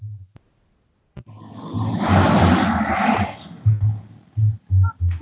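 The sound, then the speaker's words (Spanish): A sea wave swells into a broad, rushing roar and then recedes, with short low thumping bursts underneath and toward the end. No one speaks. “La primera, escuchen de cuando la musiquita y el mar está poca madre.”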